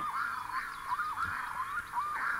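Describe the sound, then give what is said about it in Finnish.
A red-throated loon gives a run of wavering, wailing calls, each note rising and dipping in pitch, repeating steadily without pause. The calls sound clear, with no other sounds around them. “Ääniä riittää kaakatuksesta korinaan, karkeaan möykkään ja valittavaan uikutukseen.”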